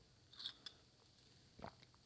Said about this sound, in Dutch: Even een slokje koffie.